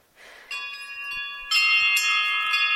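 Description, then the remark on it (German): Glass rods of an instrument called the Saturn are struck, ringing out in two bright, bell-like strikes, the second louder, each leaving a sustained shimmer of stacked high tones that hangs in the air without any talking. “Man sollte es nicht glauben, das sind auch Glasstäbe.”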